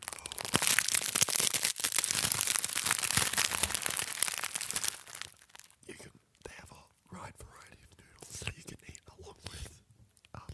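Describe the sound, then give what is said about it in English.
Crunching of dry ramen noodles: about five seconds of dense, crackling snaps, then a sparser run of quieter crunches and brittle cracks. “I'm going to crunch some of the noodles.”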